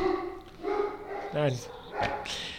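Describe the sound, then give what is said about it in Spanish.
A few sharp dog barks ring out in quick succession, moderately loud, with a person's voice talking around them. “Ay, qué puta, y ahora los perros.”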